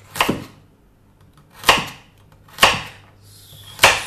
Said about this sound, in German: Und dann schneidest du dir die Karotten klein, damit sie gut in den Mixer passen.